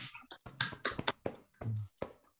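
A cupped hand, fingers and wrist slightly bent like a turtle shell, slaps against the rib cage in a quick, uneven run of about eight hollow, muffled pats, fairly soft, with a brief low hum partway through; chest percussion done to loosen sticky phlegm.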